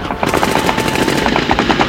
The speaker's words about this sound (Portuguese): Então o silêncio da noite foi quebrado por rajadas de metralhadoras e disparos de morteiros